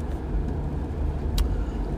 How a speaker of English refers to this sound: I'm in a separate truck from my boyfriend, so I again apologize if there's any background noise.